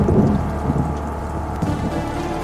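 Steady rain hisses under a deep, rolling thunder rumble that swells and settles over a couple of seconds, a continuous stormy wash with no voices, opening the first track of an album.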